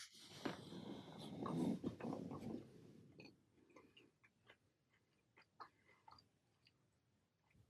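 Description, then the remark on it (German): Crunchy chewing of snacks, dense and loud for the first few seconds, then thinning into scattered soft clicks and smacks. No one speaks. “Können wir gerne machen, sorry für die Snacks, aber mh, mm.”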